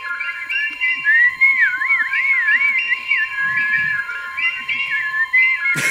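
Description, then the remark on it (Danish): Artificial, electronic-sounding hi-fi birdsong warbles and trills continuously over a steady high tone, with no one speaking, ending in a sudden burst of noise. “Fuglesang i hi-fi. Naturen kunne ikke have gjort det bedre selv.”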